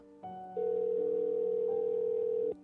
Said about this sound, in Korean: 중간에 번호를 잘못 누른 것 같은 느낌이 들었지만 통화 연결음이 들렸기에 개의치 않기로 했다.